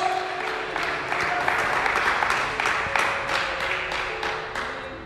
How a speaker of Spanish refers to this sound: No me convences ese aplauso, hermano, todavía. Se va a aplaudir al Señor. Aplauda fuerte, hermano. Aplauda fuerte,